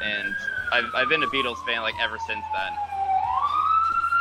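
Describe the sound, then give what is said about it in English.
A police siren from police cars passing by wails steadily in the background, its pitch sliding slowly down and then climbing again, fairly loud and sustained while a man keeps talking over it. “Yeah, we, sorry about the police sirens going by.”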